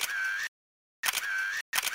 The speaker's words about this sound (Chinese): 东东侦探手拿着相机拍个不停。